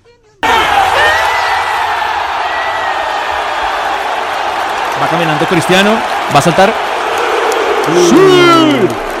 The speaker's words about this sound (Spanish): Todo el estadio lo corrió y lo cantó iba en la caminata Cristiano Ronaldo y cuando se va girando para saltar y hacer el grito de batalla, el todo el estadio, todo el estadio corrió y cantó la celebración.